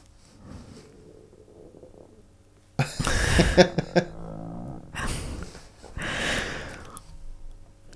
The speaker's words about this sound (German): mein Bauch hat sich auch in Rage geknurrt. Ja, ja. Den kann ich ja provozieren, dann macht er das.